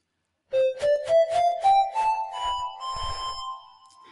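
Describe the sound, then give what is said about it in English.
The Ocarina smartphone app, designed in 2008, played by blowing into the microphone at the bottom of the phone: soft, pure flute-like notes climb step by step in a short rising run, each note tinged with breathy puffs, ending on a held tone that fades. “You hold it like a sandwich and you play it by blowing literally blowing into the microphone at the bottom of your phone.”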